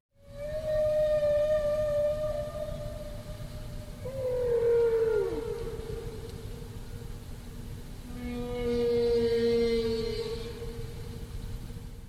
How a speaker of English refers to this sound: Now that's one phrase, and the whale repeats its phrase and sort of yodels the second time.